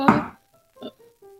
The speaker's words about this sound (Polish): słyszysz e, e, tam na górze, e, jakby echo dochodzi z góry, od do tych tylnych drzwi ktoś puka. To pewnie oni.